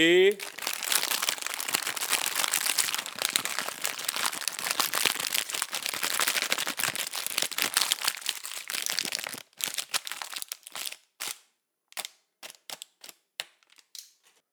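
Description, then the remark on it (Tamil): An old plastic bag crumpled by hand into a dense, rapid crackle that mimics a string of firecrackers, sustained for about nine seconds before thinning into a few scattered sharp pops. “சும்மா பழைய plastic cover இருந்தது அதை அப்படியே கசக்கி போட்டேன் அவ்வளோதான் நோட்ஸ் மட்டும் ஞாபகம் இருந்ததுன்னா போதும் அது கையில் எப்படி கசக்குறீங்களோ அதான் பட்டாசு”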